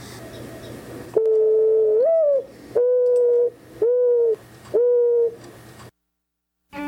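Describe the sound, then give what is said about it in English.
A mourning dove gives its soft, hollow cooing call: one longer rising note followed by three steady, evenly spaced coos, clear over faint background hiss. “The mourning dove occupies a wide variety of open and semi open habitats such as urban areas, farms, prairie, grassland, and lightly wooded areas.”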